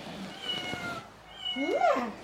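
A children's animal-sounds toy plays a recorded cat meow: a short tonal lead-in, then one clear, rising-and-falling meow, moderately loud, with no talking.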